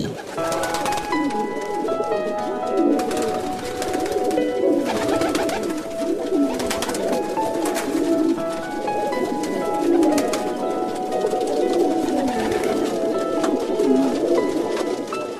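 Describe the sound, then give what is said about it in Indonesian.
Pigeons coo steadily in soft, throaty, repeated bursts that overlap one another, fairly loud, with a faint background hum and occasional higher chirps. “Merpati adalah burung yang tidak pernah mendua hati.”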